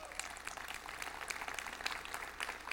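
An audience claps during a church message in a steady, soft patter of many overlapping hand claps that continues evenly without voices for nearly three seconds.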